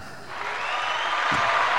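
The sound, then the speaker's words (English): An audience breaks into cheering and applause for a barber being introduced, a dense wash of clapping and shouting that swells quickly and holds steady and loud throughout. “We're gonna cheer him up.”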